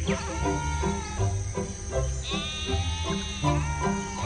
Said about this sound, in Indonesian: Bangun gembala, waktunya domba-domba. Waktunya untuk makan rumput hijau yang tebal. Bangun domba kecil. Waktunya untuk makan pagi.